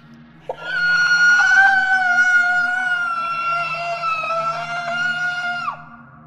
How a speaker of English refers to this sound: The creature slowly spun its head to look at me. Its body was still facing forward, its mouth stretched into a terribly insane smile. Suddenly, it bellowed the screech of a banshee.